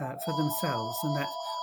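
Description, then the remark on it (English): A telephone rings steadily in the background, its tone faint but continuous beneath a person speaking in the foreground. “I'm sorry about the phone in the background.”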